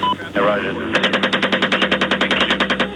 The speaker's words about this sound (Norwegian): Amerikanske soldater vitser med hverandre mens de fra oppe i et helikopter skyter mot sivile irakere nede på bakken.